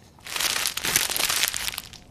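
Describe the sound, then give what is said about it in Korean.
A sheet of paper being crumpled, a dense run of crinkly, crackling rustles lasting about two seconds with steady loudness and no talking. “제가 지금 내고 있는데 이 종이, 어, 이렇게 꾸기는 소리입니다.”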